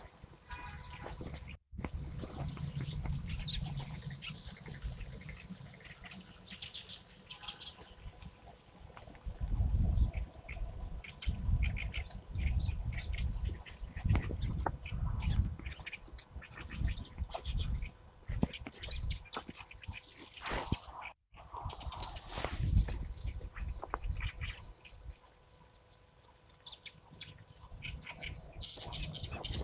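A busy mix of wild bird calls recorded during birdwatching on the north bank of the Shahe (Sha River), with varied chirps, tweets and what sounds like duck quacks overlapping continuously at moderate volume over a steady outdoor background.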